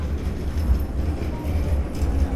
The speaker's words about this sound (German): Ein Tram holpert in Richtung Rinak, den von Renaissance-Gebäuden umstandenen Hauptplatz.